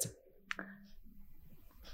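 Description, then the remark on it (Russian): Rustling of paper slips with jokes written on them, drawn out in random order: a few short crinkly bursts and a sharp click, followed by faint, scratchy shuffling noises with no voices. “Это шорох бумажек. И так шуршит бумажка номер 6 или 9.”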